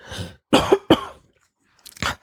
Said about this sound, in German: Ich muss mhm. gerade mal husten.